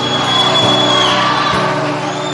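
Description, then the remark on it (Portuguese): An audience claps and cheers loudly for a couple of seconds in praise of the Lord Jesus, a dense, steady wash of applause mixed with whoops and shouts and no single voice standing out. “Você pode dar uma salva de palmas para o Senhor Jesus.”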